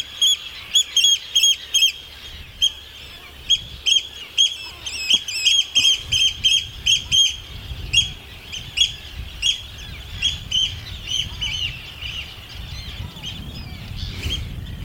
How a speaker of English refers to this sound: As if on cue, out he comes. Really love that noise, and I love oyster catchers.